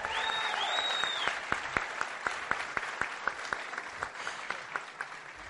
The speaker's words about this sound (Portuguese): Uma salva de palmas para esse grupo maravilhoso.